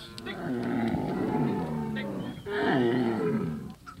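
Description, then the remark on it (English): White humped-backed cows with giant horns, herded by the Peul, low at water troughs in the early morning with deep, drawn-out moos: two long, loud calls, the first running about two seconds before a brief pause and a second one. “In the early morning, white humped-backed cows with giant horns gather around the water troughs.”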